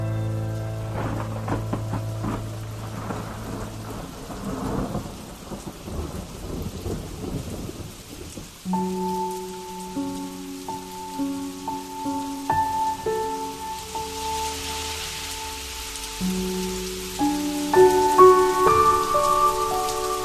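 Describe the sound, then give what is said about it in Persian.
Steady rain patters throughout, listened to through an opened window, while deep thunder rumbles low in the first few seconds; about halfway through, soft sustained musical notes rise over the downpour. No one speaks. “هنگام بارش باران پنجره را می گشاید و با تمام وجود گوش می کند باران را پی در پی و عمیق نفس می کشد شهر باران شسته را”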